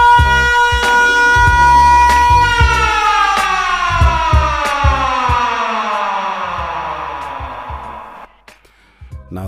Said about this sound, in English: siren was there to just wake you up and make you make sure you're still together.